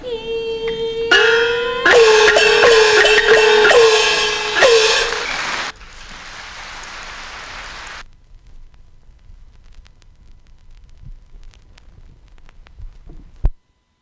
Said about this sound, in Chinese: 那在后面有一段，大家可能听到有一些杂讯的部分，哈。那这一段是我故意把它保留下来的，呃，让大家听一下黑胶唱片在走完全部之后，呃，会产生的一个杂讯，跟会听到一个很明显的，就是呃，唱臂自动呃收起的一个产生的一个声响。